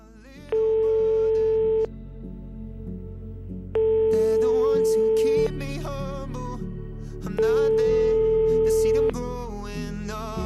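A phone call's ringing tone repeats three times, each a steady electronic tone lasting over a second, separated by pauses, over quiet background music, as someone calls a friend back.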